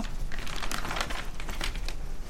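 Papery crinkling and rustling as a paper bag is handled inside a log cabin, with irregular crackly bursts, steady throughout and no voices.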